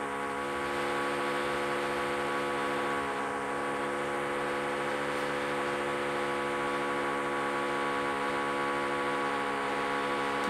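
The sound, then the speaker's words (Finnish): A power drill whirs steadily for the whole stretch, a loud, continuous motorized whine with a constant pitch and no talking over it. “varmaan ihan tahallaan poran.”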